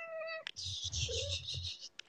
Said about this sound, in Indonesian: Di kedengeran gak sih suara kucingnya? Kedengeran kok itu.